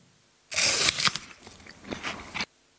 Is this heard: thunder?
no